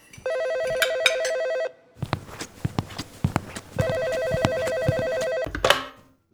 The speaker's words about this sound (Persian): ما شبش نشسته بودیم شام میخوریم تو آشپزخونه با پدر و مادر و برادر کوچیکتر که تلفن زنگ زد و دیر وقتم بود